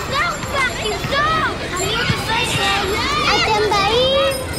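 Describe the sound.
Many children's voices shouting and calling out at once during the summer vacation, high-pitched rising and falling cries overlapping in a lively, continuous clamor of kids at play.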